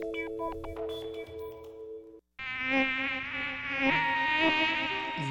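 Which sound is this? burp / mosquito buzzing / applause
mosquito buzzing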